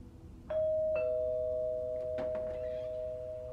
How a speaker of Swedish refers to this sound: Klockan är ungefär kvart över tio på kvällen när det ringer på dörren.